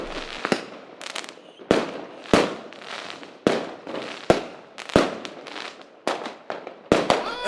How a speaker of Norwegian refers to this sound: Fyrverkeri inne! Fy faen.